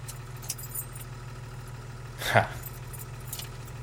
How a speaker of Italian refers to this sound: Il motore si spegne.